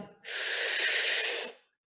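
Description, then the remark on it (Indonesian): A long, breathy exhale hisses out for over a second, then a brief, quick intake of breath follows. No one speaks. “udah cuman buang napas udah gitu langsung ambil napas lagi”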